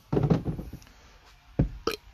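A drawn-out, low rumbling burp, followed after a pause by two short, abrupt gulping bursts.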